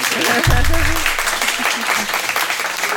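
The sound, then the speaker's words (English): A live crowd at a recording of the Early Education Show gives a quick round of applause from those who have heard the show before, a dense wash of many hands clapping at once, with a few voices and cheers near the start before the clapping settles. “If you've heard the show before, do you want to give a quick, a quick round?”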